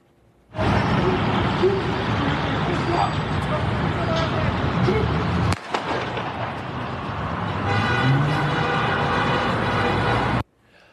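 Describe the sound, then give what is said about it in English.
Loud, steady roar of traffic and the engine of a yellow car driving off from a police traffic stop fills about ten seconds, briefly dipping midway before resuming, with muffled voices mixed into the noise. “all right, the guy was in the yellow car, he drives off, he crashes, he was shot.”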